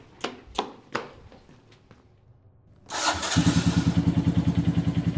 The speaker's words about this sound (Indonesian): Abi menyalakan motor dan coba memanaskan mesinnya beberapa saat